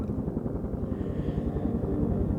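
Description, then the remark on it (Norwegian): A helicopter drones steadily some distance away, its rotor producing a low, rhythmic thumping that stays even throughout, with no voices present. “moren hører et helikopter litt lengre unna.”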